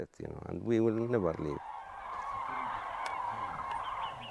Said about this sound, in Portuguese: Um barulhento bando de pássaros desenha círculos em torno do pinheiro ali ao lado, onde agora figura uma bandeira de Israel.